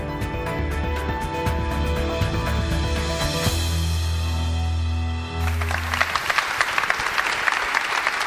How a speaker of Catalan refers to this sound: És la llarga ovació que els treballadors del Parlament dedicaven dimarts després de convocar 10 minuts de silenci a l'escala d'honor